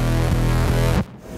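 A thick, buzzy electric bass played through a bass microsynth effect pedal plays a short riff of three or four sustained low notes, loud, then cuts off abruptly into near silence.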